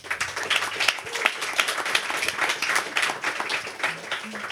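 An audience at the presentation of a publication of the journal Priestor by the Slovak Chamber of Architects applauds steadily for several seconds, a dense, crackling wash of many hands clapping at once that stays fairly even in loudness from start to finish.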